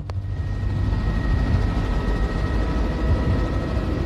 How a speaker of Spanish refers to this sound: Durante un vuelo en helicóptero sobre el desierto de Gibson, el equipo científico descubre un lago que no figura en ninguno de sus mapas geográficos ni en ninguna imagen por satélite.